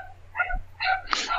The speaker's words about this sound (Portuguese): Cara, antes eu tenho que pedir desculpa pelo meu cachorro